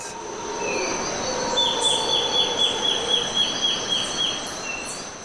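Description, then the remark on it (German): Forest birdsong recorded in a forest in Ecuador: a bird repeats a rapid series of clear, whistled notes in steady rhythm, while other high calls sound faintly around it over a dense, hissing backdrop of forest ambience. “Das sind Aufnahmen aus einem Wald in Ecuador. Erkennen Sie die Vogelarten am Gesang?”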